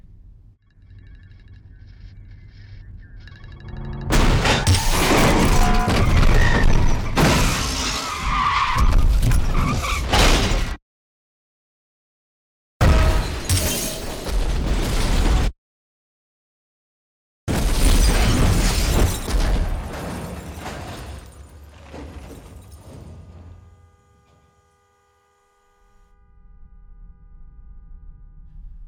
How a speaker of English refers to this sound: I just want to play just the effects stem. So we're just going to hear the isolated car crash, basically. Um, so let's just play from here and we can kind of see what that sounds like.